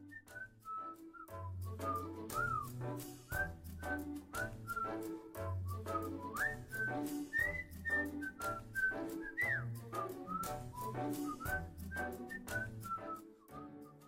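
A bright whistled melody glides up and down in steady phrases over a bouncy instrumental backing with a firm bass line and regular beats, lasting the whole stretch with no talking.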